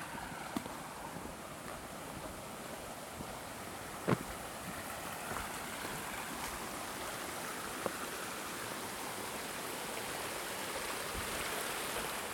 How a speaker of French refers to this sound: Oula, la rivière.